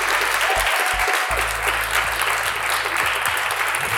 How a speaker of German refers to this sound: Guck mal, es lohnt sich doch, wenn man 150 Leute einlädt, dann klingt der Applaus auch so.